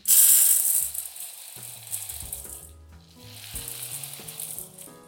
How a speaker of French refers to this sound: Vous entendez ce doux son des lentilles